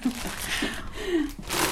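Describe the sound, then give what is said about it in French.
Crisp rustling and crinkling of arugula leaves being handled for making soup, coming in a few uneven bursts, with a faint voice murmuring briefly underneath. “En fait, c'est le bruit de la roquette.”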